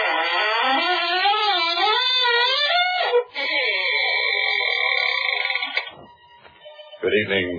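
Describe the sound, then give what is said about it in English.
The squeaking door of the Inner Sanctum Mysteries old-time radio program creaks open with a loud, drawn-out squeak that wavers up and down in pitch, then settles into a steadier high groan before fading, followed by a brief low knock. “This is your host, waiting to act as your guide through the squeaking door on a specially prepared travelogue.”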